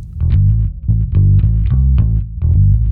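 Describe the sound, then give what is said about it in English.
A solo electric bass plays a busy, driving funk line, with quick repeated low notes and sharp plucked attacks in a tight, pushing rhythm, loud with a slightly gritty effected tone. “This is a relentless bass line.”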